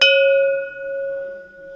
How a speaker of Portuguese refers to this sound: Bate forte no metal até que dali saia um perfeito, harmónico e constante som que o badal tira no embate com o ferro.